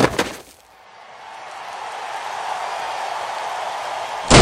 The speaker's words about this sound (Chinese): 跆拳道馆的大门被用力拉开了